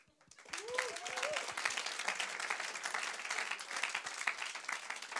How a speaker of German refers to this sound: Erstens, einen herzlichen Applaus für die College-Studenten, die heute da sind.